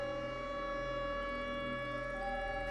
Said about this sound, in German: Sirenengeheul. So laut, dass ich glaube, es mir die Trommelfelle zerreißen.